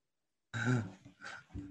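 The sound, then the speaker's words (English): A short, harsh throat-clearing cough bursts out, followed by two smaller rough clearing sounds in quick succession, with no talking. “you got a little COVID cough in here, guys.”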